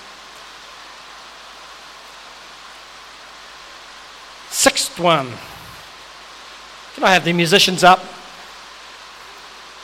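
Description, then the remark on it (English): Heavy, torrential rain pours steadily on a roof, a constant dense hiss running the whole time, while a person speaks briefly twice over it. “I like the pitter patter of rain on the roof.”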